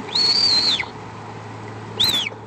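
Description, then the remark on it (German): A puma gives two high, thin whistling calls, a long steady one followed after a pause by a shorter one, each clear over a faint background hiss. “Und zwar pfeifen ja Pumas.”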